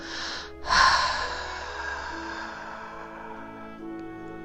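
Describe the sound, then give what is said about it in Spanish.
A long, deep breath pushed out through the mouth, starting as a strong airy rush and slowly fading, over a steady, soft musical drone with no talking. “Y exhala profundamente por tu boca. Inhala y hacemos el sonido.”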